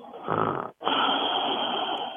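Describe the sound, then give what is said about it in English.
A phone caller from Hamden, Connecticut imitates snoring: a loud, rasping snore-like inhale, a brief pause, then a longer drawn-out snoring rattle, with no other talking. “This is a totally fake snore.”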